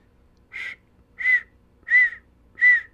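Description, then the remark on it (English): Four short, high-pitched squeaks, spaced evenly and each a little louder than the last, made by a person's mouth to imitate the squeaking of a malfunctioning device with a screen that fails to turn on, with no talking around them. “something like that like not a bird whistle but a squeak like a little squeaker annoying”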